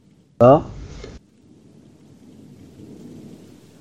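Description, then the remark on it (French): A short vocal burst at the start, then a steady low rumble of a rain sound effect with thunder rolling underneath, soft and continuous to the end. “Là, qu'on va remettre un petit peu de musique. Enfin, de, bruit plutôt. Euh, il est où Ah non, pas la pluie Eh si”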